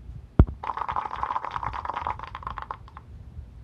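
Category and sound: sound effect, applause sound effect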